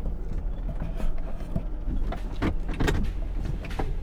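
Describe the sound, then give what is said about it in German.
A car comes to a sudden stop, its steady low rumble broken by several sharp clunks and rattles, with no voices. “Eines Tages stoppte Baba plötzlich das Auto.”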